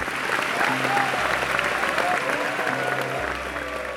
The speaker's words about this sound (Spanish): ¡Qué noche tan emocionante, damas y caballeros! Los aplausos del público se desataron.